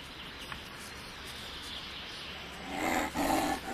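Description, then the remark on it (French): A wolf growls low and rough over a hissy, noisy background, the snarl swelling louder and harsher in a short burst near the end. “Les loups sont revenus dans les Alpes il y a une dizaine d'années et ceci a provoqué bien sûr un certain nombre de problèmes, notamment le fait qu'ils s'attaquent de temps en temps aux animaux domestiques, chèvres et moutons.”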